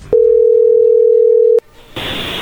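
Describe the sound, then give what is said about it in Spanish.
A telephone dial tone on an outgoing call: one loud, steady, mid-pitched hum lasting about a second and a half, then it cuts off and gives way to a hissy line noise. “A ver, vamos a llamarle a ver qué sucede”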